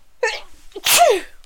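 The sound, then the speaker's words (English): A single loud sneeze: a short voiced intake leading into a sharp, breathy burst that trails off quickly, with no talking around it. “Bless you.”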